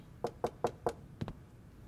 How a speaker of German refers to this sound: Jemand klopft an die Haustür. Es ist ein Mann mit einer großen Kiste in der Hand.